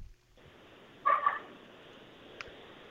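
A single short dog bark, muffled, rises out of a steady phone-line hiss during a caller's phone call, then the hiss continues with only a faint click afterward.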